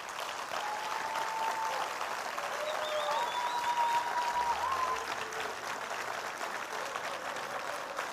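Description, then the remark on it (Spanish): A church audience applauds for the Lord during a morning service, steadily for several seconds, a dense, even patter of many hands clapping at once, with a few faint whistles or cheers rising over the sustained noise. “De el mejor aplauso que usted pueda dar ahora mismo, en este momento.”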